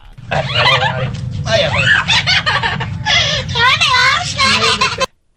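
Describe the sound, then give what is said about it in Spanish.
A parrot imitates a crying child, wailing in rising and falling whines and sobbing bursts, loud, over a low steady rumble, for about five seconds before stopping abruptly. “Este loro, para empezar, llora. Llora como un niño.”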